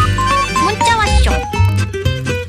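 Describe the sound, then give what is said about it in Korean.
A short, upbeat text-message alert jingle on a radio programme, signalling listeners' text messages, plays loudly and fully for a couple of seconds, with bright melodic notes over a steady bass and no talking. “문자 왔쇼.”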